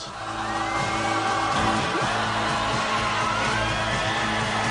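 A rock song from the film Ferris Bueller's Day Off (Curtindo a Vida Adoidado) plays steadily and loudly, its dense band sound carrying shouted, whooping vocals and a driving, repetitive rhythm for the whole stretch, with no talking over it.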